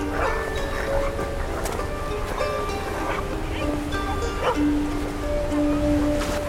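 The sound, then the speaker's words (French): Villagers' dogs on a small tropical atoll bark and yip in short bursts over a steady roar of powerful surf and incessant wind, with some voices mixed in the background. “entourés de leurs chiens, leurs poules et leurs cochons, lui souhaitent la bienvenue.”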